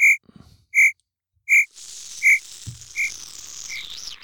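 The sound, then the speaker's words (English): Crickets chirping sound effect played from a button, in a steady, evenly spaced rhythm, about six clear chirps, with a continuous high insect trill rising in behind them partway through. No voices. “Where's the crickets button?”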